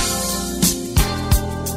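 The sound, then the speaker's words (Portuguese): A short jingle for the radio segment Saúde no Ar on Educadora, put on by Marco Antônio: sustained, layered musical tones punctuated by three punchy low drum hits in quick succession, with no voices. “Minha gente, o Marco Antônio já colocou a vinheta, então eu vou direto para a linha para conversar com o médico de família, Dr.”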